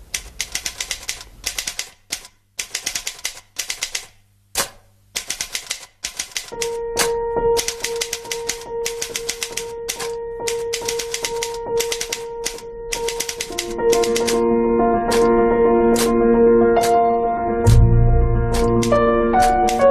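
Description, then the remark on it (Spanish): Rhythmic typewriter key clacks, sharp and percussive, tap out a steady pattern, first on their own and then over a bright orchestral melody with sustained instrumental tones. “vamos a escuchar como marca muy bien y, hace eh, avanzar las melodías a, mm. golpe de, a golpe de tecla de, máquina, de, máquina de escribir.”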